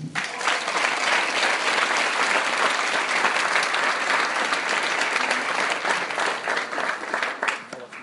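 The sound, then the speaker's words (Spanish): An audience at a talk claps for themselves steadily for about eight seconds, a dense, even wash of many hands at a fairly loud level, easing off slightly toward the end. No one speaks. “y pues la verdad, para comenzar quiero que se den un gran aplauso por eso.”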